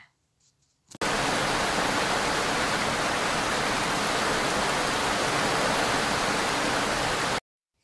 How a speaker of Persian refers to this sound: بارون تندتر شد